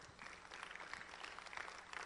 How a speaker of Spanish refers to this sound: ¿Cuántos le pueden dar un aplauso a nuestro Dios que cumple?